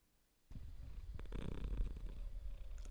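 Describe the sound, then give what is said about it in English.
A cat purrs steadily, a low continuous rumble with a soft rhythmic throb that starts abruptly after a brief quiet moment, with no talking. “he's purring. I can hear, I can hear your valet purring.”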